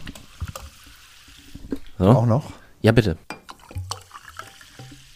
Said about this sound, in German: Jetzt wird hier erstmal Wasser eingegossen, oder?